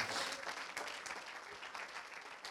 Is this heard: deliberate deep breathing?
no